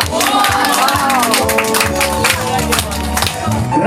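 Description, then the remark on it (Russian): A crowd claps steadily, the applause dense and continuous for a few seconds while voices talk and call out over it. A prize winner is being handed a certificate at a harvest festival award ceremony. “Аплодисменты, держите.”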